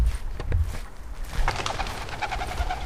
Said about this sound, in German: Plötzlich flattert eine Ringeltaube aus einem nahegelegenen Baum. Ich muss sie wohl geweckt haben.